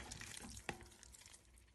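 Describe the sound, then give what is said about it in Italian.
Seven beaten eggs with a little salt being stirred in a pot, a steady wet scraping and swishing, with one sharp knock of the utensil against the pot partway through. No voices. “questa roba qua rimestiamo il tutto”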